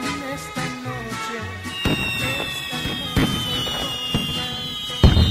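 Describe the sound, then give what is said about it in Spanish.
Fireworks rockets going off after a brief bit of music: a high whistle streaks overhead while several sharp bangs burst at intervals, the loudest crack coming near the end. “¡Ah, ya sé por qué estás echando cohetes!”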